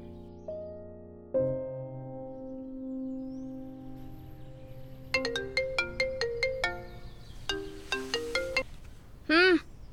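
A phone ringtone for an incoming call plays a melodic electronic tune: sustained tones first, then a quick run of short, bright chiming notes and a brief warbling trill at the end, clear.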